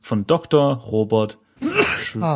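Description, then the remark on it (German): A man speaks briefly, then a short, explosive sneeze bursts out loudly, followed by a breathy exhale as talking resumes. “Ah, Gesundheit.”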